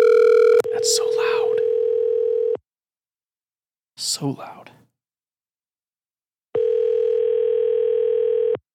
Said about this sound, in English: Calling. Hopefully this worked. Maybe I just can't call anybody. I don't know. Are you gonna call or not gonna give me a dial tone?